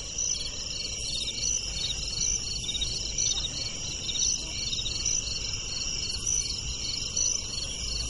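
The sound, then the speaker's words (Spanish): Crickets chirp steadily in a dense, high-pitched pulsing trill that never lets up, over a low background rumble and with no voices; the crickets are climbing on the glass of a closed window. “Los grillos suben por el vidrio.”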